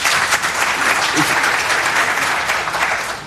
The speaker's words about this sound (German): Da war der Applaus jetzt schon ein bisschen...